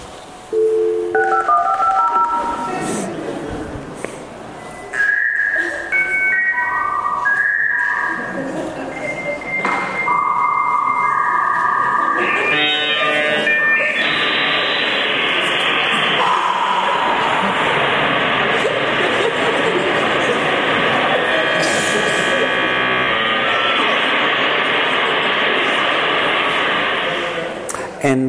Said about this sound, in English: That's when you got on the internet. That's an actual recording of an AOL dial up.